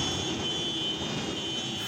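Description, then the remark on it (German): A convoy of farmers' tractors drives honking through the town of Tübingen on a Friday evening in protest, with a steady, loud engine roar and broad rumbling noise that holds unbroken for the whole moment, with no one talking. “Durch Tübingen fuhren am Freitagabend Bauern mit ihren Traktoren hupend durch die Stadt.”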